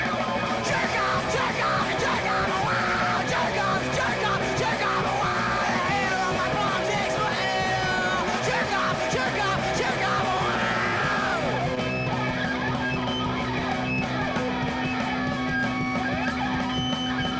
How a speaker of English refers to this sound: Is it punk? It sounds punk.